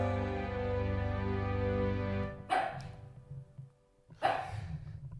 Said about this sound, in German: Ja, äh, ihr hört den Hund immer noch bellen.